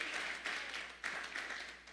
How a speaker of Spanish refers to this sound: Ah, gracias por los aplausos a la palabra.